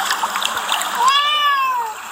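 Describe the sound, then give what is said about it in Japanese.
A small stream flows through a village with a steady rushing babble throughout, and a single drawn-out cat meow rises and falls over the water partway through. “自然豊かなですね、村ですね、小川が流れていてですね、すごく、えー、空気が美味しいです。”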